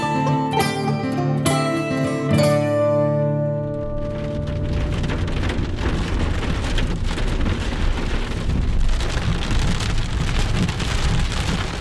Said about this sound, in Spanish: Tarde de tormenta primaveral. Me dirijo hacia Herrentería, donde reside nuestro anfitrión.